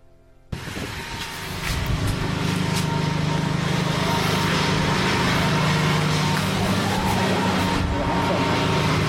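A ride-on lawn mower engine starts abruptly and settles into a steady, loud drone with a low rumbling hum and broad mechanical noise, holding constant throughout.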